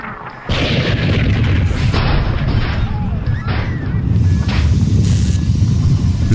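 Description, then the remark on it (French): After a brief quieter moment, a massive explosion slams into a spaceship, wrecking its dimensional compressor and violently jolting the ship. It then rolls on as a loud, sustained roar with deep rumbling and crackling bursts. “L'intense explosion qui ruina le compresseur dimensionnel du vaisseau de l'Exode et la violente secousses qui suivit furent accompagnées de plusieurs ruptures de canalisation et d'une surchauffe des calculateurs.”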